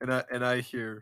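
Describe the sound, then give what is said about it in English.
A man's voice repeats the short phrase "and I hear" three times in quick succession, each fairly loud, imitating the repeating reverberation of an echoing voice in a crowd. “the first thing I hear at the Game Awards is an echoing voice in the in, in the crowd”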